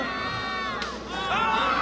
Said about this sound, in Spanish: Cuando entran al hospital, se escuchan ruidos y gritos de niños.